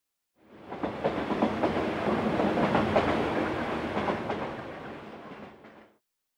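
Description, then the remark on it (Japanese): An 11-car Yamanote Line commuter train runs along the rails through central Tokyo, Japan, with a steady roaring rumble and rhythmic wheel clacks, swelling in and fading out over a few seconds, with no voices. “山手線これは山手線です山手線は東京の中心を走ります山手線は11両です朝8時1両に300人ぐらい乗ります”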